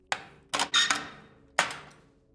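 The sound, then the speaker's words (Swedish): Several sharp metallic clunks of door locks slamming shut on all the doors of a house, including the back door and kitchen, one after another in an uneven sequence, each with a short ringing decay, with window shutters slamming shut too and no talking. “Och så hör ni hur låsen smäcker igen.”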